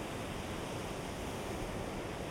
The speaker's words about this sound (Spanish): Bueno, ahora tengo el mar enfrente